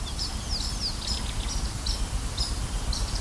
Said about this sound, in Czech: Stačí ale na chvíli nastražit uši a víme, že ptáků je tu nepřeberné množství.